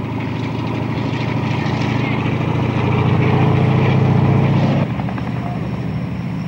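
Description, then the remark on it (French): A US Navy propeller airplane's engines drone loudly and steadily on San Isidro airfield after it has landed a team, with a deep throbbing hum that swells briefly before dropping slightly near the end. “Un avion de la marine américaine vient de débarquer l'équipe de cinq colonnes sur l'aérodrome de San Isidro.”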